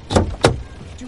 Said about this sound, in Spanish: Tras forcejear con la puerta cerrada,